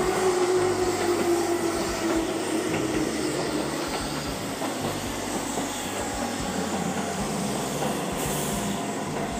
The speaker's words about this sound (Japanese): ちょっと電車の音が入りますね